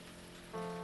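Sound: rain falling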